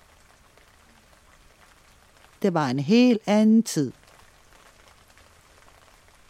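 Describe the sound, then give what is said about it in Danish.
Steady rain falls in the countryside by the villages near Langesø at Christmastime, a soft, even hiss, with a voice speaking a short sentence over it partway through before the rain continues alone. “Det er så smukt herude på landet, mens regnen siler, og julefreden breder sig i landsbyerne ved Langesø.”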